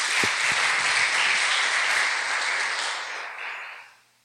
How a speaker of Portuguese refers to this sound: Aplausos para ele, para Jesus.